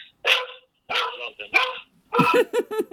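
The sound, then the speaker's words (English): A dog named Harvey barks several times, a few sharp separate barks followed by a quick run of three or four rapid yips, loud and without any talking over them. “So Harvey's uh, joining in. That's okay. That's okay. We like dogs on moving radio.”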